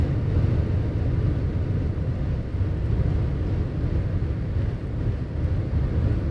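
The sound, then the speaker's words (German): Steady low rumble of a car driving, with continuous road and engine noise filling the whole stretch at an even, fairly loud level and no voices. “Aber jetzt in diesem Sinne äh, schließe ich das und äh, fahre weiter.”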